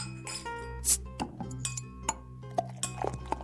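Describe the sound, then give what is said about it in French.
Glasses and dishes clink together on a small rolling cart loaded with drinks and assorted snacks, a quick irregular series of light, ringing taps over a low, steady hum, with no one talking. “Dolores a rempli un petit chariot de boissons et divers amuse-gueules.”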